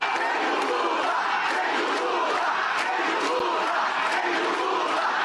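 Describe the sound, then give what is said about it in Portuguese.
A large crowd at a parade in Brazil shouts political chants in unison, for President Jair Bolsonaro and against former president Luiz Inácio Lula da Silva, a dense, continuous roar of many voices with rhythmic surges, steady and loud throughout with no single clear speaker. “O desfile ocorreu sob gritos a favor do presidente Jair Bolsonaro e contra o ex-presidente da República, Luiz Inácio Lula da Silva.”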